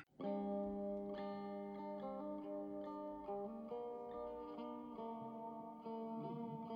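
A punk rock song plays loud and steady, dominated by thick, distorted electric guitar chords that ring out and shift every second or so, with no vocals in this stretch.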